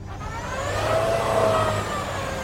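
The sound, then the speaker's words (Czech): A car engine revs and strains steadily as soldiers help pull the car out near Vuhledar, its pitch rising and holding for a couple of seconds over a low rumble, with no one talking. “Jejich auto před Vuhlodarem ale nakonec pomohli vytáhnout vojáci mířící do města.”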